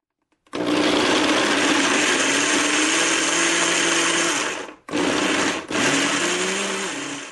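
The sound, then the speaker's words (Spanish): A blender blends an ajoblanco mixture with water, whirring loudly and steadily, its motor hum rising slightly in pitch, then cuts out briefly twice before starting up again. No one speaks. “Licuamos, probamos la mezcla para mejorar su textura, añadirle más sal o agua de ser necesario”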